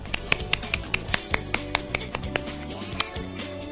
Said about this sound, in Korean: 우와! 다들 박수!